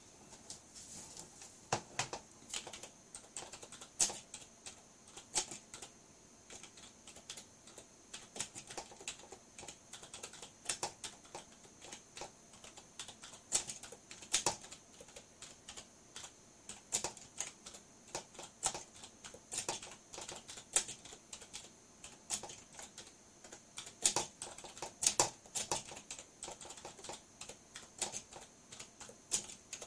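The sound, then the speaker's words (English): Rapid, continuous clacking of keys on a computer keyboard, fairly loud, with irregular bursts of keystrokes and brief pauses throughout, no voices present. “I need a quiet keyboard.”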